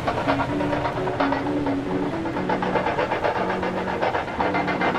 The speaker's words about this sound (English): Viola Walker was furious, the roller coaster increasing in speed Viola the Lone Rider as the cart swooped faster and faster around the track.